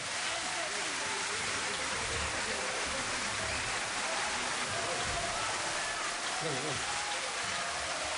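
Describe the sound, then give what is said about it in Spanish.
Sustained, dense audience applause fills the whole stretch, a steady wash of many hands clapping at an even level, applauding a tango orchestra at the end of its 20th birthday celebration. “Fuerte el aplauso para los maestros.”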